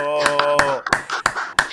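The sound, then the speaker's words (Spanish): Sharp, evenly spaced claps ring out for a guest, a few at a time rather than a dense ovation, the first ones overlapping a sustained voice before the claps continue on their own. “Señores, yo creo que hay que darle un fuerte aplauso”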